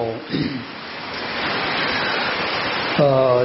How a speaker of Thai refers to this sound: ฝนกำลังตก ให้ความชุ่มเย็นกับพวกเรา